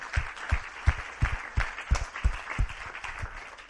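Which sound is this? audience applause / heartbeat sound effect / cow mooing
audience applause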